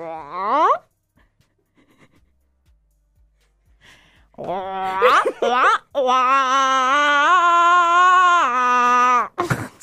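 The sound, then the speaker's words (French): A voice imitates a fast car: a quick rising vocal sweep, a short pause, then a loud, buzzy engine-like drone that climbs slightly in pitch and holds for several seconds. “C'est un peu un bruit de voiture qui va vite.”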